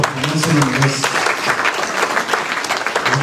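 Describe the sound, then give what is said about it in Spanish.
An audience applauds the Lord during a Spanish-language sermon, a steady, dense wash of clapping that holds at an even loudness throughout, with a voice faintly audible beneath it early on. “Denle un verdadero aplauso al Señor.”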